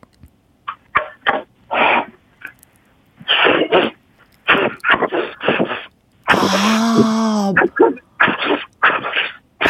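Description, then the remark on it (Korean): Amid conversational speech and a laugh, a voice briefly imitates the sound of a rice-pounding mill as a party trick, with a sustained, wavering, breathy vocal noise lasting about a second before the talking resumes. “방아 소리 한번 들려드리겠습니다.”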